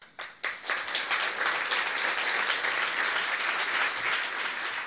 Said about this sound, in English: And isn't it lovely to hear applause?